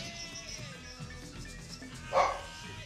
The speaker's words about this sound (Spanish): Se escuchan a la perrita ladrar y que se va es porque hay sonidos o cosas ah. espectrales aquí en este asunto.